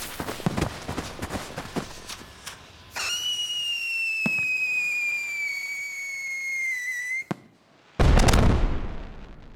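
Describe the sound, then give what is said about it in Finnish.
Firework rockets crackle and pop in quick bursts, then a steady high whistle rises and holds for several seconds before a loud, booming explosion bursts, under a cloudless sky. “Viime vuonna meni isommat raketit ihan hukkaa, kun nousi niin mahottoman korkealle.”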